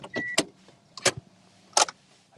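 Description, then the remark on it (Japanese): A car arriving at a parking lot and being brought to a stop: several sharp mechanical clunks and a brief electric whine, heard from inside the vehicle over a faint low rumble. “駐車場に着きましたので一旦車を止めます。”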